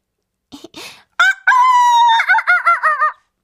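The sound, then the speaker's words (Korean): A voice mimics a rooster's crow: a couple of short lead-in sounds, then a loud sustained harmonic call ending in a warbling, wavering tail, clear with nothing else behind it. “그러면 그냥 닭소리는 어때?”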